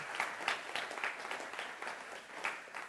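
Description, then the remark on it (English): A crowd applauds to thank the team of people who clean the building, many hands clapping at once in a dense, crackling wash of sound that stays fairly even in loudness throughout, with no voices standing out. “So we can give them a round of applause.”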